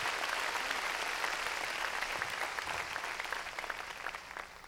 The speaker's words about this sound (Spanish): Démosle, démosle palmas fuertes a nuestro Señor.